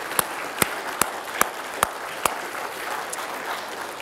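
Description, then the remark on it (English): Audience applause for the mothers present on a special day for moms, a dense wash of many hands clapping, with a few sharp, loud claps standing out at a steady rhythm early on before the clapping carries on more evenly. “And if you agree with that, why don't you give our moms here today just a big round of applause?”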